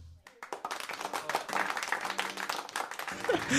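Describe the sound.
A burst of dense, close applause starts almost immediately and carries on steadily, many hands clapping at once, with a voice or cheering mixed in underneath.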